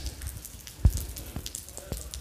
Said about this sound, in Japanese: えー、その時はね雨そんなひどくなかったんですけど今はですねそこそこ雨降ってます